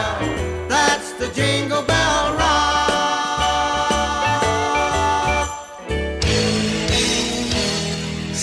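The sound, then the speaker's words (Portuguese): A short, bright musical sting, the opening jingle of a radio program, plays on its own, full and loud, with punchy bass notes and layered melodic tones that shift into a brighter burst near the end, with no one speaking. “E eu tô por aqui para ouvir essa vinheta que é muito massa também.”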